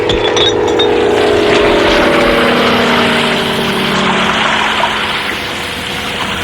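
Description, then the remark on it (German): A firefighting plane roars overhead dropping water bombs on a spreading fire, its droning propeller engine blending with a loud, steady rush of falling water that fills the whole clip, continuous, with no voices. “Das Löschflugzeug wirft Wasserbomben!”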